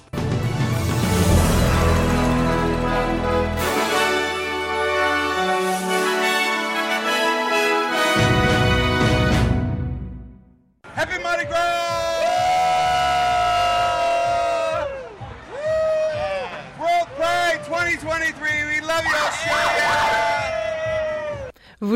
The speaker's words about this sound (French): Vous avez entendu, des dizaines de milliers de personnes ont célébré le grand retour de la parade de Mardi Gras hier à Sydney euh, sur Oxford Street. Le 45e défilé annuel est revenu sur son parcours historique